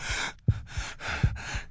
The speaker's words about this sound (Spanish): Yo jadeaba, tratando de recobrar el aliento.